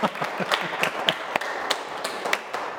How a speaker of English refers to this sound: Oh, yeah, I'm getting applause today.